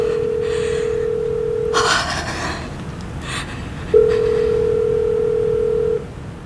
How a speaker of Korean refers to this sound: 수지는 영민에게 전화를 걸었다. 조바심을 내지 않으려 했지만 신호가 길게 이어지자 저절로 애가 탄다.